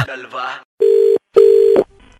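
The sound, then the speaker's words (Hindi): Two steady, loud telephone tones sound in a row, each about half a second long, right after a brief burst of voices, like a phone line tone heard while placing a call. “अरे यो के यो यो लगा रखा है फोन लगाओ”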